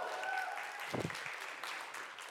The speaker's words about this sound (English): Uh, lots of clapping today.